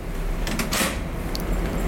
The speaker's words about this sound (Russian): и ригеля со звуком выстреливают. Вот это уже ближе к э, нашему да. привычному восприятию двери и замка.